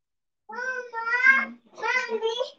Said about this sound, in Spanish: ¡El gato!